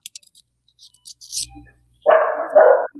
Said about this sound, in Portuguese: Cachorro.